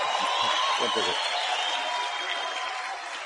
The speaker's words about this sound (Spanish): Un aplauso para los próximos diamantes varones de acá.